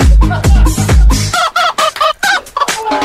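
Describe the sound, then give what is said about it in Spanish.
A hen clucks loudly in a quick series of short, sharp calls, with a few heavier thumping sounds at the start and no one speaking. “Ahí de gallina.”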